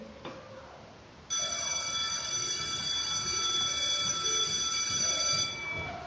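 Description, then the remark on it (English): An electric school bell rings continuously for several seconds with a loud, harsh metallic buzz, then cuts off, heard clearly over a faint murmur of background noise. “Yeah, it sounded like a bell, right? Yes, in addition, I think that it was a school bell.”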